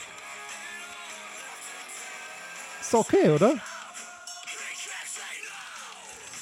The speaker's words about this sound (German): Also so Post-Hardcore, Screamo